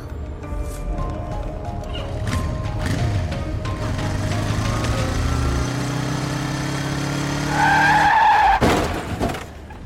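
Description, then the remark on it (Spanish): A motorcycle engine revs and whines along, then tires squeal in a sharp skid and a loud crash hits near the end as the rider, not wearing a helmet, falls, followed by quiet. “Uy, qué palo, encima sin casco.”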